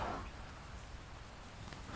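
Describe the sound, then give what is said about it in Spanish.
Steady, soft hiss of rain falling, a continuous wash of fine patter with no voices, fairly quiet and even throughout. “Ábreme, que está lloviendo.”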